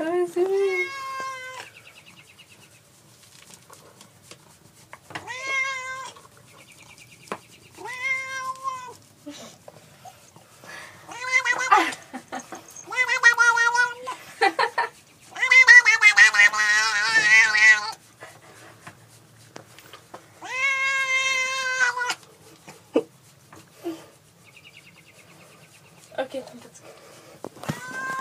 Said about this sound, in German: Da klingt das kleine Kätzchen so wie ein Baby, wenn man's am Popo streichelt.